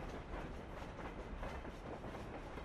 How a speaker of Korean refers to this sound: 스위스 철도망이다. 정말 사랑스럽다. 기차가 속삭이듯 조음이 달리는 것도 사랑스럽고, 차량 사이의 미닫이 유리문이 품위 있게 열리고 닫히는 것도 사랑스럽다.